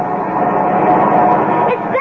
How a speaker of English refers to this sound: They're here. It's Dad's pickup truck Grandpa.